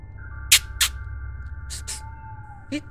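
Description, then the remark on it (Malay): A voice imitates a high, hissy bird-like chirp: two quick pairs of sharp 'sweet-sweet' bursts, then one more, over a steady low background hum. “Lebih kurang pukul 2-3 pagi macam tu Masa dia tengah kusyuk study tu Tiba-tiba dia macam terdengar ada bunyi macam Sweet-sweet dekat depan dia Bunyinya bunyi sweet macam macam ni lah”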